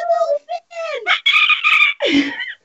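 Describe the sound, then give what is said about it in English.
A woman imitates a dolphin with a loud, rapid run of high-pitched squeals, chirps and chattering whistles, broken by a few brief pauses and ending in a falling squeak. “She can dance, she can sing, she can do dolphin impressions, like she's a professional there.”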